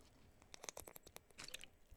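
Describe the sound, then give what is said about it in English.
Someone drinks water right up against the microphone, a quick run of wet slurps, lip smacks and clicky swallows lasting about two seconds, with no talking. “he drank some water into his mic.”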